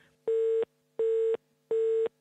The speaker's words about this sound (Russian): На мой вопрос «Что?» последовало «Ой, мы вам перезвоним» и длинные гудки в трубке.